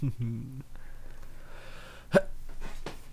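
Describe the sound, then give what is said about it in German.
A single sharp sneeze bursts out, brief and loud, following a moment of voiced talk and low background noise. “Gesundheit.”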